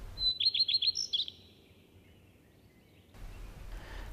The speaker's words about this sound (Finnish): Jos tuntee leppälinnun laulun